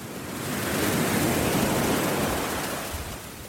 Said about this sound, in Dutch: Zoals je hoort sta ik op een strand, maar weer eens ik sta niet op Brighton Beach. Dat is hier ongeveer 10 eh, kilometer vandaan. Ik sta op Dover Beach.